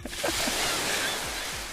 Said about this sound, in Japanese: 実際この波の音もね実は 沖縄にね行って撮ってきたのよ 自分で iPhone で